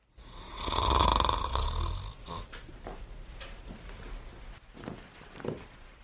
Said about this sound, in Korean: 수면 무호흡증인 그가 신나게 코를 골다 멈춘 순간 이는 숫자를 셌다.